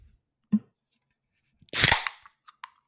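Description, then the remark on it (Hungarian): A can of Soproni radler beer being cracked open: a small metallic click, then a sharp, loud pop with a short fizzing hiss, followed by a couple of faint clicks. No talking. “Kérlek szépen egy soprani radlárt hallottatok felbontani, felbontódni, nullánulás.”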